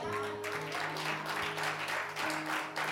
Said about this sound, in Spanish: Alguien, alguien aplaude a papá.